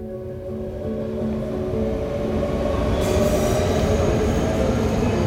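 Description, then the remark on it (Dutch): A train rumbles steadily along the rails at a station platform, its low roar building slightly louder, with faint metallic squeals and hum of wheels; no one speaks. “Als Ties nu op de trein staat te wachten, kijkt hij niet meer alleen naar de mannen en vrouwen op het perron”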